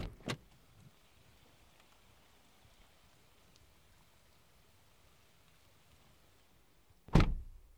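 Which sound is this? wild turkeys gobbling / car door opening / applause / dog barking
car door opening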